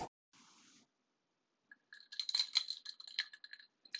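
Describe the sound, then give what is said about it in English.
Bright clinking and rattling of ice against a glass of lemonade, a rapid flurry of small taps lasting a couple of seconds, preceded by a brief soft scrape; no one speaks. “Can you hear that? That's my lemonade, and that's how I got out of bed.”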